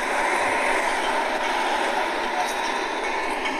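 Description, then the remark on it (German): A tram running on rails produces a steady, continuous rolling hiss and rumble. It stays fairly loud for the whole stretch without pause. “Geräusche der Straßenbahn sind einfach super interessant.”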